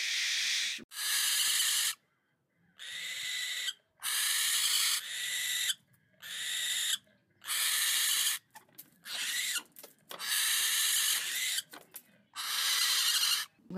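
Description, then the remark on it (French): Barn owl chicks hissing in a run of about nine loud, breathy, rasping bursts, each lasting roughly a second with short gaps between, harsh and noisy like escaping steam, with no talking. “Et donc, les petits, les poussins de chouette effraie, ils vont faire un bruit très particulier, un espèce de...”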